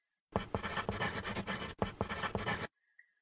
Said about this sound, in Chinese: 用笔写字也有沙沙的摩擦声。